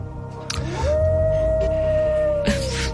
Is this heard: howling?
yes